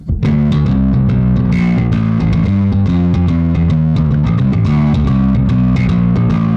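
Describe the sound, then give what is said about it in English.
An electric guitar with a maple fingerboard, maple top and ash body, played with overdrive kicked on, plays a steady run of chords and notes, loud and bright with a gritty, saturated edge and sustained low harmonics throughout, with no voices. “I mean, it's just a brightness machine. If you kick on overdrive.”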